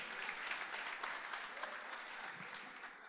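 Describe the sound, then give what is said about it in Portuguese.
An audience breaks into steady, dense applause to the Lord, many hands clapping together in a continuous, even wash of sound that holds its level throughout. “Aplauda ao Senhor pela vida deles.”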